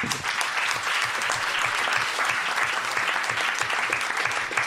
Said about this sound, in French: Eh bien, merci beaucoup en tout cas pour cette chronique. On peut applaudir Monsieur Fibre.